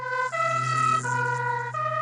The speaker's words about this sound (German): Ein vorbeifahrendes Polizeiauto mit eingeschalteter Sirene kann für sie quälend sein.